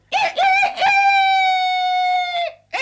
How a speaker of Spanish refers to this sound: amigo gallo. ¿No ves que es mediodía? ¿No te basta con cantar al salir el sol?